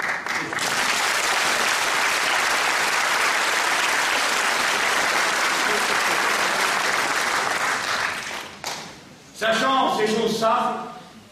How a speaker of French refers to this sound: Vous m'avez applaudi il y a un instant pour manifester votre rapport avec moi sur ce point.